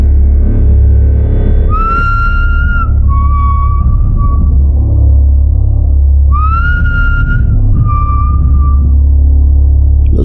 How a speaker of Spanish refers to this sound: Al mismo tiempo, el hombre, como si estuviera celebrando, comenzó a silbar.